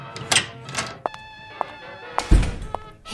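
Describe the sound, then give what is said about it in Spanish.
Several dull knocks on a door, irregularly spaced over a few seconds, with one heavier, deeper thump near the end, with no voices. “Mire, ¡Shh! Hay alguien en la puerta.”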